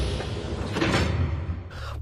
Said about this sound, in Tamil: தானியங்கு கண்ணாடி கதவுகள் அவனை உள்ளே நுழைய அனுமதித்தது